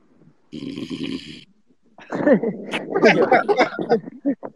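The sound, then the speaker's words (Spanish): A single loud, rasping snore lasting about a second, followed by a short pause and then people talking and chuckling. “¿Quién es el que ronca?”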